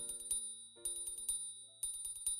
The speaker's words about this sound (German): Gerade wollte Merle Matz am Geweih wachrütteln, da klingelte ein Glockenwecker.